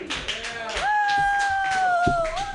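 An audience claps steadily throughout, a dense patter of hand claps, while a long, high, steady whistle rises over the applause and holds until the end.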